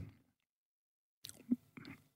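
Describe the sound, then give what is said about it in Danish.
Biting and chewing food, the first bite: a brief soft sound, a pause, then a few crunchy, wet bursts with one louder thud as the mouth works, no talking. “Jeg har næsten ikke lyst til at tykke på det, altså fordi det er den første bid, sådan, øhm, den er øhm, meget, meget skarp.”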